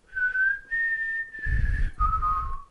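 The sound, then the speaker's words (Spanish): Someone whistles a short tune: four clear, sustained notes that step up and then drop in pitch. Breathy rumbling sits under the last notes. “me he trabado hasta el silbar.”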